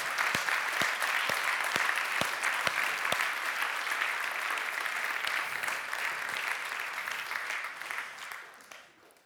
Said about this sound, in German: Wow, vielen herzlichen Dank. Merci vielmals. Gebt doch am Chor auch nochmal äh, einen Applaus. Merci vielmals, super gemacht.